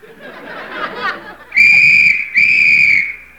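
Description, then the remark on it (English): Two loud, shrill whistle blasts sound in quick succession, each held for under a second, following a stretch of noisy crowd chatter and laughter, as a signal for a thousand skin divers in rubber suits to put their snorkels in place. “On that whistle, a thousand snorkels were slurped into place.”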